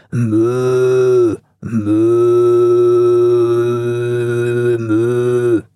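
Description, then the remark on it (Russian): A person imitates a cow's moo: two loud, low, droning vocal calls, a short one followed after a brief pause by a long sustained one, with no speech. “Да, мычит.”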